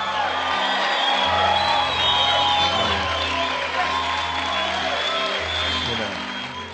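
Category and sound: crowd, audience applauding and cheering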